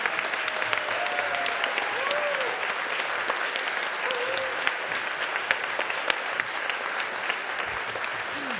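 Sustained audience applause welcoming the event's organizer, a dense, steady wash of clapping from many hands with a few faint whoops and calls rising through it, continuing without pause.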